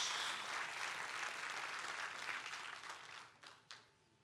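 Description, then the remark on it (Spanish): An audience bursts into sustained applause for God, a dense wash of clapping that holds steady for several seconds, then thins out into a few scattered final claps before fading. “¿Cuántos le dan un fuerte aplauso a Dios por eso?”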